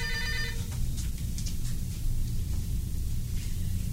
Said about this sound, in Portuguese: o telefone está chamando.